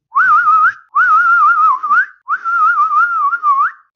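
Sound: eerie whistling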